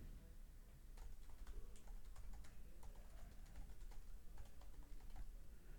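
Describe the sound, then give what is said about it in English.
Rapid, irregular clicking of keys on a computer keyboard, steady for several seconds, with a low background hum and no voices. “I'm a pretty fast typer”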